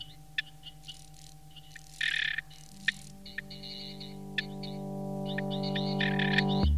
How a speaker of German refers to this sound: Blauflügelige Springschrecke, Sphingonotus cerulans, reibt mit dem Hinterschenkel über eine gezahnte Flügelader.